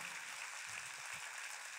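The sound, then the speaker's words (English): An audience applauds steadily, a dense patter of many hands clapping together with no voices over it, the sound holding even throughout. “Go ahead and put your hands together.”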